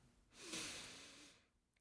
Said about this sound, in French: Alors stop, on arrête tout, on prend une grande respiration